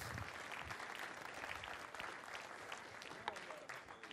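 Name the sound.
round of applause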